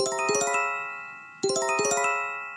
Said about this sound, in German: Kommt ein Beben, werden Menschen am Smartphone alarmiert.